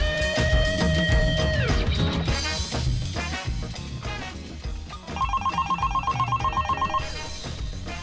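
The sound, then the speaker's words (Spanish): A telephone rings with a rapid electronic trill lasting about two seconds, loud, layered over a busy music track with drums and synth tones. “Suena el teléfono.”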